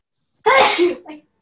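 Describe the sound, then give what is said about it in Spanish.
A single loud sneeze, made with the mouth covered, bursts out sharply and then tapers off with a short, fainter exhale right after, with no talking around it. “Ay, salud. Salud.”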